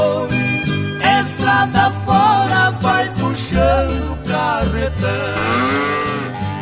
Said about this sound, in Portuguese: O boi é um mamífero ruminante, faz parte do grupo dos bovinos, é ungulado e apresenta dois, dígitos, dois dedos em cada pata.